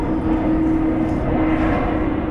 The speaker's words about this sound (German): Flugzeuge ziehen im Minutentakt über mich hinweg, Richtung Tegel, ein Flughafen, der von Winterschlaf nur träumen kann.